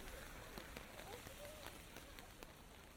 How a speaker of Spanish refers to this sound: Bueno, parece que la lluvia ya se detuvo un poco.